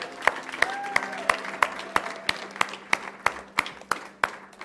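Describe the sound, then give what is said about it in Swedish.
An audience gives another round of applause, clapping together in a steady, even rhythm, roughly three sharp claps per second, with a faint murmur of voices underneath and a brief tonal call near the start. “Kan vi ge dem en applåd till?”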